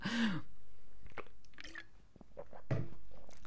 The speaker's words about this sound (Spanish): yo voy a aprovechar para beber un poquito de agua porque tengo la boca seca.